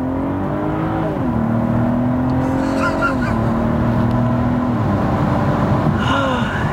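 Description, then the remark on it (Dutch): A car engine roars steadily as the vehicle accelerates hard, its revving pitch climbing and dropping with a couple of gear shifts over several seconds. “Je merkt toch helemaal niet dat je zo hard gaat?”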